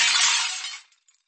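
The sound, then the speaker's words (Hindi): A neighbour's window pane, hit by a cricket ball struck for six, shatters in one bright, crashing burst, its glittering high-pitched debris ringing out for under a second before a couple of small tinkles trail off into silence. “अगर आपका बचपन दिल्ली में गुजरा हो तो लाजपत नगर या करोल बाग में कभी क्रिकेट खेला था आपने उन चौड़ी या सिमटी सड़कों पर अगर आपने ज़ोर से छक्का लगाया हो तो चांसेस है कि पड़ोसी का शीशा लाहौर में ही टूटा होगा”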